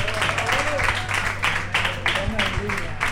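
Audience applause, a dense steady patter of many hands clapping for about three seconds, fairly loud and even throughout, with a constant low hum beneath it.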